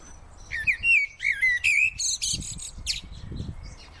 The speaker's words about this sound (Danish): Hvis vi tager sådan en øh, ganske almindelig fugl som solsorten, så indeholder den sang faktisk rigtig mange forskellige informationer en solsort sang, den lyder jo forskelligt fra alle andre fuglearters sang,